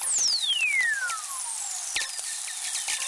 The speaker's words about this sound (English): This is the sound of lightning striking across the Earth's magnetic field. Robert Helliwell recorded these atmospheric whistlers for …, produced by Jim Metzner.